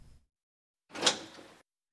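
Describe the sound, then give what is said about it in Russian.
The door of a police interrogation room swings open with a single broad, scraping creak lasting under a second, moderately loud, followed by quiet. “Дверь комнаты допросов открылась, вместе со следователем”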